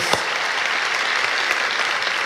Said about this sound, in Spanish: Ellos son merecedores de nuestro reconocimiento, de nuestro aplauso.